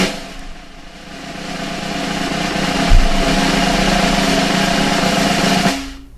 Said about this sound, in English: And the winner is. Wait a minute, we need the drum roll first.